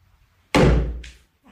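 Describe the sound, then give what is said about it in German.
A single loud whack against a door frame as a spider crawling into the frame is swatted in a house, the thud ringing out briefly before a short, faint rustle follows in the quiet. “habt ihr das gehört? Jetzt ist sie. Schatz, du hast sie jetzt umgebracht. Sorry, keine Spinnen in unserem Haus.”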